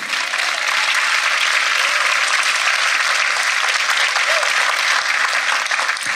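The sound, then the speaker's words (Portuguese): Steady, loud applause from an audience during a sermon, given to the Lord: a dense wash of many hands clapping that holds evenly for about six seconds without a break. “Quem crê e vai viver isso dentro do seu lar e da sua casa, dá um forte aplauso ao Senhor.”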